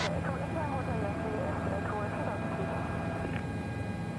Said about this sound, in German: 20.000 Fuß können wir erreichen mit diesem Hubschrauber.